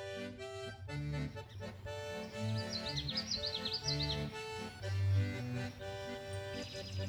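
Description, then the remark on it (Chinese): A small bird, the class pet named Jiujiu at a school, chirps in a quick series of high, twittering notes for a couple of seconds, with a brief burst again at the end, over steady background music. “结果班上的小鸟啾啾一直在旁边对着我啾啾啾啾的叫，好像在催促我赶快进教室上课。”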